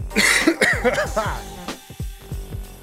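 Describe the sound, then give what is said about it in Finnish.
A fairly loud run of harsh, throaty coughs, around eight bursts in quick succession, slowing slightly toward the end with no talking in between. “yskäät, yskejä, yskintää löytyy ja kaikkea mahdollista.”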